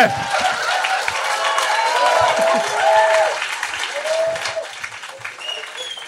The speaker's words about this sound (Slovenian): Ja, ploskajte!